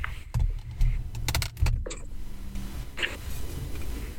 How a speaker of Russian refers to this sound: Я приношу извинения за шум, потому что подключаюсь из автобуса.